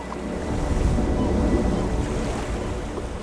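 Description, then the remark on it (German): Waves slosh steadily against a small fishing cutter out on the open Baltic Sea off Schleswig-Holstein during a fishing trip, a continuous rushing wash with low rumbling and some wind buffeting the microphone, no voices present. “Heute geht es einmal richtig raus aufs Wasser.”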